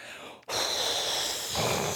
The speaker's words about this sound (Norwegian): Puste gjennom veene.